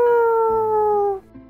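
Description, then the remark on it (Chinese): A voice imitates a rooster's crow: a single loud, drawn-out, tonal call that glides slowly downward for just over a second before cutting off, with a faint low murmur after it. “哇，跟大公鸡的叫声一模一样，太厉害了，太厉害了！”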